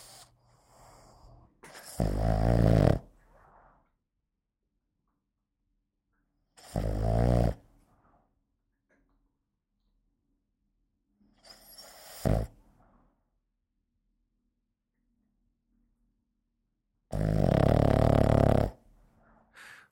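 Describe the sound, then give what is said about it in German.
A sleeping Boston terrier puppy snores, four rough, rasping snores spaced about five seconds apart, with quiet breathing in between and no talking. “Und was bei uns Welpen allen gleich ist, wir schlafen viel.”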